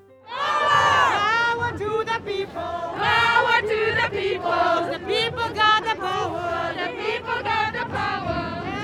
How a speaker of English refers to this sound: I'm in the middle of an estimated 50,000 people marching from Kelvingrove Park to Glasgow Green. It's a designated route well away from the negotiation halls.